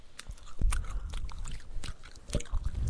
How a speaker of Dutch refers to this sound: We hebben geen popcorn, we hebben vandaag zure matten. Ja, we gaan lekker alsnog eten en ja.